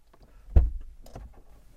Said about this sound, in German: Auf jeden Fall mache ich jetzt leise, leise die Tür auf.